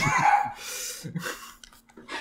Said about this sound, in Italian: Però hanno il cane, quindi va bene che ci si senta il cane di sottofondo.